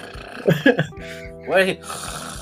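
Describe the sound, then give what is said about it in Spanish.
A voice imitates two people snoring with a few rough, breathy bursts followed by a drawn-out nasal rasp, loud, with no words spoken. “Pero ya, un, un tema ya es roncar. Pero ya el otro era. se estaban tragando al mundo.”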